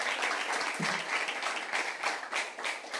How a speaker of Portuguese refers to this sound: Dê um aplauso ao Senhor, gente.